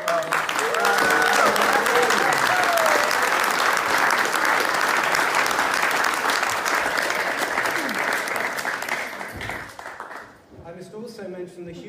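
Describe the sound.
A crowd applauds steadily with dense, sustained clapping for about ten seconds, then it fades out and a voice begins talking at the end.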